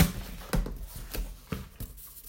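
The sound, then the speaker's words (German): Scissors struggle through packing tape, making four or five crisp, crunching snips at uneven intervals, moderately loud, with a faint rustle in between and no one talking. “Ähm, der Schere geht das ganz schlecht.”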